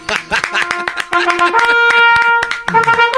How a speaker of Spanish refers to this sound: Sí, bravo, que me aplaudo yo solo. es la verdad. Bravo, bravo.